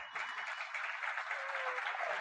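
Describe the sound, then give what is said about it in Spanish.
A crowd breaks into steady, dense applause, many hands clapping together in a continuous wash of sound that stays fairly loud and even throughout. “Dense un fuerte aplauso.”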